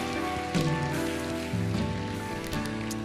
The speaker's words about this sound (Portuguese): Dê um glória a Deus bem alto. Dê uma salva de palmas ao Senhor Jesus. Aleluia!